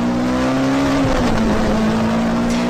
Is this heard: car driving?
yes